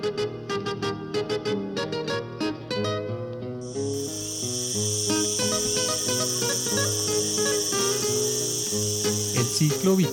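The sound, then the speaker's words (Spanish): A loud, steady cicada buzz kicks in after a few seconds and drones continuously over melodic instrumental music that plays throughout. “de la cigarra se da inicialmente bajo tierra, luego sale en un tiempo corto para reproducirse y morir.”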